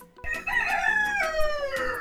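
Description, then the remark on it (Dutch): A rooster crows loudly, a strained, wavering cock-a-doodle-doo that stops suddenly after about two seconds as its neck is wrung. No one speaks. “Nou, haan de nek omgedraaid.”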